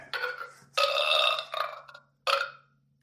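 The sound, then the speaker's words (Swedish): A run of loud belches: a short burp, then a long drawn-out one that trails off, and after a brief pause one more burp, with no talking. “Vilken drängstuga. Rapa, fisa, klia, pung som du så skämtsamt brukar säga.”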